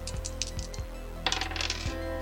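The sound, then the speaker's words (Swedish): Two dice are rolled on a hard surface during a tabletop role-playing game, several quick knocks followed by a brief tumbling rattle as they settle, landing on two ones. No one speaks. “Okej, så jag tar en förlust i ego och så slår jag två tärningar.”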